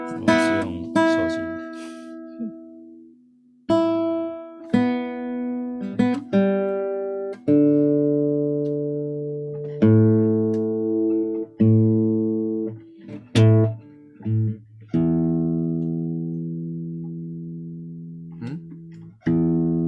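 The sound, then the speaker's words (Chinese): A run of sustained, harmonically rich reference tones from a tuner on a phone, each held for a second or two before shifting to a new note, moderately loud with no talking. “欸、有有那个调音器可以调调看。”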